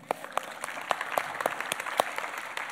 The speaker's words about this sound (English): This is our youth group here. Everyone applaud that they're here this morning.